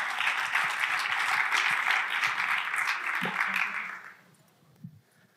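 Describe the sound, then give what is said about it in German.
Audience applause welcoming a guest speaker onto the stage, a dense, steady wash of many hands clapping for about four seconds before fading out, followed by a brief quiet stretch with a faint thump. “Komm auf die Bühne mit einem herzlichen Applaus”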